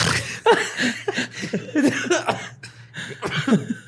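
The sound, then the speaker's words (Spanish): A stifled, aborted sneeze: a series of short breathy, sputtering bursts and catches that stretch out into a drawn, yawning exhale, moderately loud, with a steady low hum underneath. “Quería estornudar y no podía. Y se convirtió como en bostezo y luego me hice jabalí o no sé qué pasó.”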